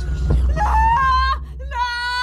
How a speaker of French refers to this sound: Mélusine s'enfuit par la fenêtre en poussant un hurlement.